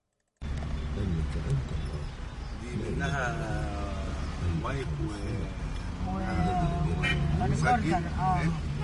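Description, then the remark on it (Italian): Steady, heavy traffic rumble with passing engines in Cairo, Egypt, while a news bulletin from Egyptian state radio talks continuously over it inside a taxi. “Il notiziario di Radio Masra, la radio di Stato egiziana più ascoltata nel paese, si confonde con il rumore del traffico infernale del Cairo”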